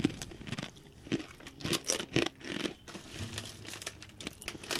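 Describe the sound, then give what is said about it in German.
A bag of Snyder's pretzel pieces, a new variety, crinkles and rustles in irregular bursts, with sharp crackly bits among the softer rattle of pretzel pieces shifting inside. No talking, just the steady plastic crackle. “Das ist äh, eine neue Sorte von Snyders. Die haben sonst auch diese Brezel-Ecken mit verschiedenen Geschmacksrichtungen, die ziemlich lecker sind.”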